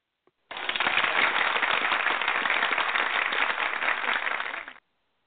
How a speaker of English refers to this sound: Okay, I heard the applause, but I don't hear you.